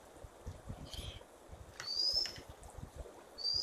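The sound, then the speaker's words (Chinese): Two thin, high, upward-slurred whistled calls of a white-capped redstart (Chaimarrornis leucocephalus), each brief and fairly faint, rising over a steady rushing background noise with no talking. “白顶溪鸲 （学名：Chaimarrornis leucocephalus）是雀形目鹟科的鸟类”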